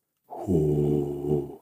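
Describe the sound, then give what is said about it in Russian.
A single deep, rough growl-like breath produced by a human voice as part of a breathing exercise, made by releasing the belly, sustained for just over a second, steady with no other sounds around it. “он такой глубокий, да, такой как немножко как рычание получается”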